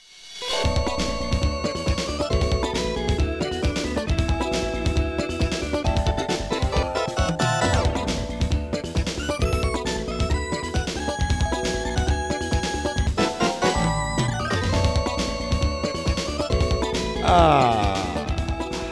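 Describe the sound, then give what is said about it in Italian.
Upbeat electronic game music from Racing Beat, a Taito driving video game, with a steady driving beat, bright synth melody lines and busy bass, playing continuously and loud throughout with no voices. “Invece no, state ascoltando la musica di Racing Beat, un gioco di guida di Taito dimenticabilissimo.”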